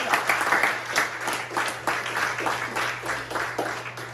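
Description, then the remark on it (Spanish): A crowd applauds steadily for about four seconds, dense overlapping claps with a soft rhythmic pulse, over a constant low hum. “Un aplauso para todos.”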